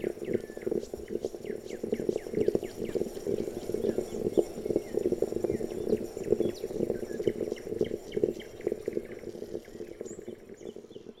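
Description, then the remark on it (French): A stovetop moka pot brewing coffee, with steady gurgling and sputtering and rapid irregular pops and hisses running throughout, no voices. “Ce que vous entendez là est le son de notre euh, cafetière italienne.”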